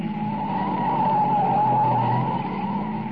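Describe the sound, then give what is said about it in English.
Car tires screech in a long, steady, loud skid as a light car takes a sharp right turn and almost goes over, holding one high whining pitch for about three seconds over a low engine rumble, with no voices. “Ah, baby, look at her take that right turn, huh? She almost went over.”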